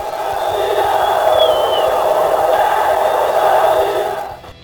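A huge crowd of América football supporters at the Mineirão stadium chants and roars together, singing that they are champions, in a dense, continuous wall of voices that holds steady for several seconds before cutting off abruptly near the end.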